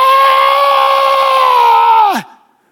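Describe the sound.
A voice imitates a startled woman's scream: one loud, high-pitched shriek held steadily for about two seconds before its pitch plunges and it cuts off.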